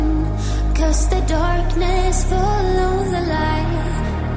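A song plays loudly and steadily, with a sung vocal melody gliding over thick, sustained instrumental backing and a strong low end, no talking over it.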